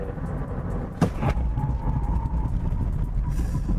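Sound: car braking hard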